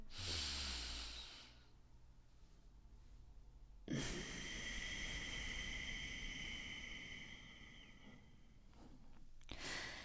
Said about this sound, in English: sound in the back of your throat when it comes out like it's almost like an ocean wave or they also call it like the lion's breath